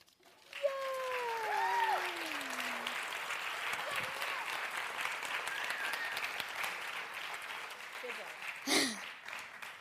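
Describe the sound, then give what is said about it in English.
An audience breaks into steady applause at the end of a sermon at a church service, a dense, sustained patter of many hands clapping that fills the whole clip, with a few voices calling out over it. “and then you proved me wrong because you clapped.”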